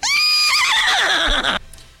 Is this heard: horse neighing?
yes